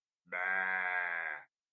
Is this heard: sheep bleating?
yes